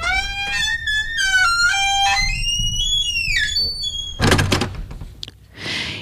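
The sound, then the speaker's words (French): A garden gate facing onto the sidewalk is pulled open, creaking on squeaky hinges with several drawn-out, high-pitched squeals, followed by a loud clank and a brief rattle as it swings. No voices. “en tirant à lui la barrière donnant sur le trottoir.”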